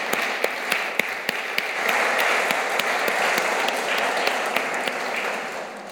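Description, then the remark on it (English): A church audience applauds steadily for several seconds, a dense wash of many hands clapping with sharper individual claps standing out, swelling slightly in the middle before easing off a little. “Let's give her a big clap.”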